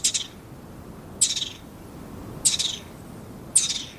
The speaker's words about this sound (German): Hast du das erkannt? Das mm, klingt so ein bisschen wie ein Außerirdischer. Das ist krass, oder? Also ich dachte das auch so, oder, oder wie, so ein, wie so ein schrabbeliges Elektrogerät. Das ist aber ein Gartenschläfer.